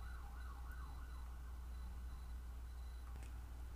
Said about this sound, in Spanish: Ya, perdón que tuve que pausar la grabación porque justo pasó una ambulancia o algo por el estilo y había una gran bulla.